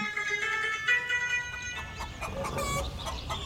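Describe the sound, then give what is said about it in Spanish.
Farm fowl clucking steadily, several birds at once in a busy, overlapping chatter that stays fairly loud throughout, with no one speaking. “Se colaron los animales.”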